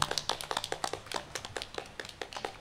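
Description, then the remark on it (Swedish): A brief round of applause for two poets after their poetry reading: quick, crisp handclaps in an uneven, overlapping patter, fairly quiet and sounding like a small group clapping, with no voices over it. “Jag skulle vilja ge en applåd för våra begåvade poeter.”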